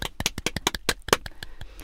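A quick run of hand claps, about a dozen sharp smacks at an uneven, brisk pace, loudest early on and softening toward the end, with no one talking over them.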